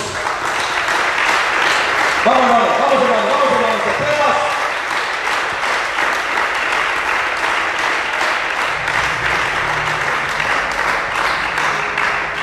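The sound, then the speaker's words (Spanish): A large group claps loudly and continuously for the Lord Jesus, a dense roar of applause, with a brief shouted voice near the start rising above it. “Un aplauso fuerte para el Señor Jesús.”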